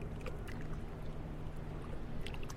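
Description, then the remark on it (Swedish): A boat moving across the open sea off the Gothenburg archipelago, Sweden, on a cool night in late May 2020, with a steady low engine drone beneath a continuous wash of water and occasional splashes against the hull, fairly loud throughout. “Det är natten mellan den 25 och 26 maj och vi befinner oss på havet utanför Göteborgs skärgård.”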